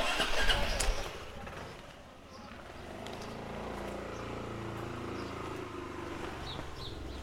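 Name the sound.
motorcycle engine starting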